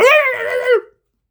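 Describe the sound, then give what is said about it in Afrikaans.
A voice imitates a dog barking at night, with one loud, drawn-out bark lasting under a second, followed by silence. “Die hond het begin blaf.”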